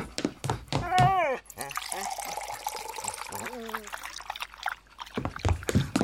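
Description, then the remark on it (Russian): Water is poured into a bowl for Altai in a steady splashing stream lasting about two seconds, its tone rising slightly as it fills, with voices speaking before and after. “Фух, надо Алтай воды налить”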